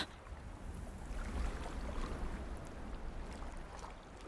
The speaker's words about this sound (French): Il y a le son de la pagaie dans l'eau, peut-être des oiseaux un peu.